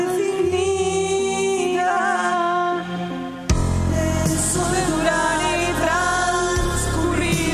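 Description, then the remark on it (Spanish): A song recording with a 1980s sound, sustained harmonic tones and a reverberant, echoing quality, shifting into a fuller, louder section with bass and cymbal wash around the midpoint; no speech. “este sonido, ¿no? Como de otra época, de los 80.”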